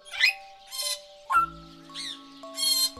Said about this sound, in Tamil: இப்போ பாருங்கள் எல்லா பறவை ஒன்றா கற்றுது பாருங்கள்